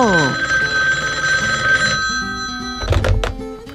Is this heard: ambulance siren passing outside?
no